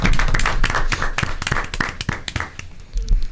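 A small group claps their hands in brief, close applause, a dense, irregular patter of sharp claps that thins out toward the end with a few stray thumps.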